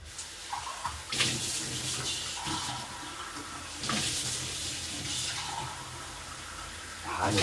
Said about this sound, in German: Ich nehme euch wieder mit in die Küche und wasche die Tasse aus.